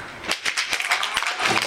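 A crowd bursts into applause, many hands clapping at once in a dense, steady patter with a few sharper claps standing out, sustained and fairly loud for under two seconds with no talking.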